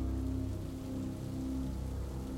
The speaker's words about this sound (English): The rain starts hammering down against the glass, and the wind picks up too.